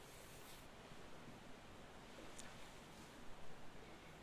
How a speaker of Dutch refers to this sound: En het rustgevende geluid van de oceaan krijg je er gratis bij.